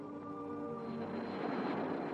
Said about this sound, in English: The plane roars off the ground on her maiden flight.